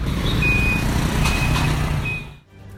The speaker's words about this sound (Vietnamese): Những ngày qua thì à, do tình hình dịch bệnh đã dần ổn định nên hoạt động vận tải hành khách qua bến xe này đã nhộn nhịp hơn.